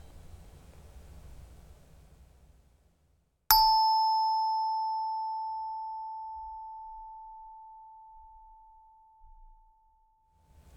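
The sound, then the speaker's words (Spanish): A meditation bell is struck once to begin a meditation session, ringing out with a bright, clear tone that hums on and fades slowly over several seconds, following a stretch of quiet, low background rumble. “Al sonar la campana, empezaremos esta sesión.”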